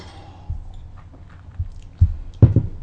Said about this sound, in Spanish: Bueno, me extendí un poco el primer tema, así que me voy a dar el segundo sorbito del día para pasar a otra cuestión.